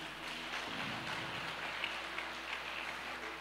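A church audience applauding together during a service, clapping for the name of Jesus, a steady crackling wash of many hands clapping at once, sustained and even, with no voices over it.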